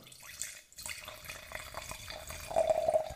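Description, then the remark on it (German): Wine pours steadily into a glass from a half bottle wrapped in aluminum foil, a soft splashing trickle that brightens into a rising, ringing tone as the glass fills toward the end. “wenn wir einschenken.”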